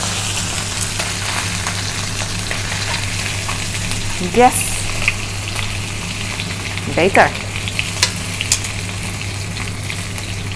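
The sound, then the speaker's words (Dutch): Steady, crackling sizzle of food frying in a hot pan fills the scene, with a low hum underneath and a couple of brief louder clatters; a voice speaks a few short words. “Ik kan hem ook nog, oh sorry, ik kan hem ook nog even boven de uh, warmtebron zetten, dan verdampt eh, het water nog een beetje.”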